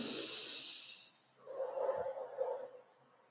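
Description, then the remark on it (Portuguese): A long, airy deep breath drawn in with a bright hiss during a guided breathing exercise, then a softer, lower exhale that fades after a couple of seconds; fairly quiet, with no talking. “Tá puxando o ar, respirando fundo, respirando fundo.”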